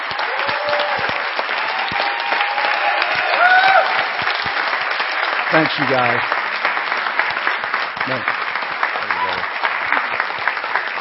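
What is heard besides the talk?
audience applause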